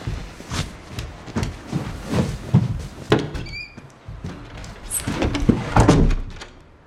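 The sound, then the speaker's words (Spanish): A door is handled and pushed shut, with several solid thuds and knocks, a short squeak partway through, and rattling movement against a low background rumble. “Mi amor, abre la puerta.”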